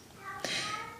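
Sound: domestic cat meowing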